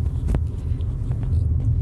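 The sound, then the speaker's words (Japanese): A steady low engine rumble from a car idling at a standstill, continuous and fairly loud, with a few faint clicks and knocks rising briefly above it. “というわけで、まあ、車一時停止させて準備しつつ、今回の配信ですけども、うん。”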